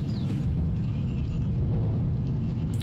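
A deep, continuous rumble of thunder rolls steadily for about three seconds, heavy in the low end and fairly loud, with no voices over it.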